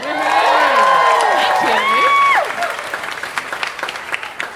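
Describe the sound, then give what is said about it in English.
A crowd bursts into loud cheering and whooping over steady applause as comedian Mel Buttle is introduced; after a couple of seconds the voices drop away and scattered clapping carries on a little softer. “Please give it up for”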